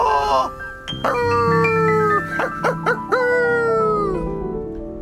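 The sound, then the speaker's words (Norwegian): Husky dogs howl in long, wavering, overlapping cries that rise and fall for several seconds, loud, with no talking over them. “Se på Ole og den høsken hans, hvor gøy de har det.”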